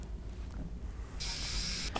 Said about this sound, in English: The particles are then cleaned from the crown with air and water.